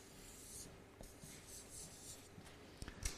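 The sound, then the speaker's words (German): A strip of Tesa adhesive tape being pressed and smoothed down to hold the front part in place, with soft scratchy rubbing bursts, quiet overall, ending in a couple of sharper little crackles. “Und das hier vorne so festkleben, dass das oben bleibt.”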